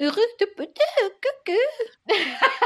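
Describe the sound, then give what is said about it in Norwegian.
A voice imitates the crying intonation of a French baby, a string of short, rising-and-falling wails in quick succession, moderately loud with brief pauses between each sob. “babyer eh, gråter og sutrer og pludrer med språklig aksent”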